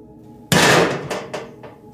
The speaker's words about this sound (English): He turned to see a raccoon knocked over a trash can by one of the houses.